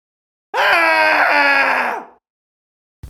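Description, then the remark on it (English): A loud, sustained cathartic human scream lasting about a second and a half, raw and strained, followed by silence and a brief burst of sound at the very end. “Let's find a place where uh, we're safe, away from family, perhaps, to do a cathartic scream.”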